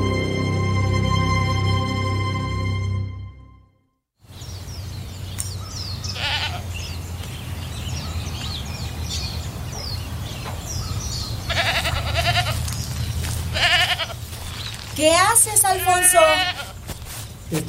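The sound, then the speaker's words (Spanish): Goats bleat: one long, steady bleat at the start, then a pause and outdoor background noise, followed by several shorter, quavering bleats near the end. “Solo tenían un burro y unos chivos, y con eso eran felices.”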